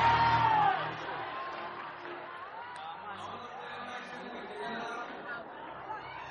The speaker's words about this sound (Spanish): Y usted le va a decir a la persona que tiene al lado, si quiere gritárselo, si quiere susurrar usted le va a decir, ¡la vamos a hacer! vamos a hacer!